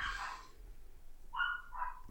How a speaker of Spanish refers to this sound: Espero no se escuchen esos perros volviéndose locos. Si se escuchan, no manches. Ok, esperemos un momento. son tuyos, güey. No, güey, son no sé, del vecino. están volviendo locos, no sé.